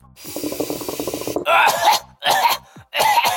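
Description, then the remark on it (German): A rough, crackling inhale of smoke gives way to three harsh, hacking coughs in quick succession, loud, with no talking. “Frau …, wollen Sie als erstes rauchen? Ich muss bestimmt husten.”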